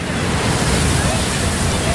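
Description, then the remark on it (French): Ocean waves crash onto the beach at Cap-Breton during a New Year's Day swim, in a loud, continuous rushing roar that fills the whole two seconds without a break. “ah ouais, grosse vague, grosse charge ça bouge comme vous dites, mais heureusement toutes les vagues nous ramènent au bord et euh, beaucoup de sensations fortes du coup.”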